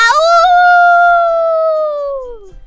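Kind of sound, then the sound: animal, wolf howling loudly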